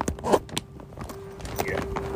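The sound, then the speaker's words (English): A clothing zipper being worked up in several short, raspy tugs, with small rustles and clicks between pulls and a faint steady hum underneath. “I'm trying to zip back up.”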